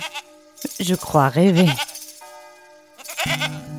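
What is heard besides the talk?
goat bleating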